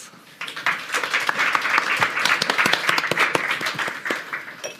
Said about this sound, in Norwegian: Ønsk dem alle velkommen med en eh, applaus.